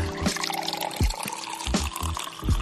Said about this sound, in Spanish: ¿Cómo preparas este jugo verde? En una licuadora hecha una taza de agua.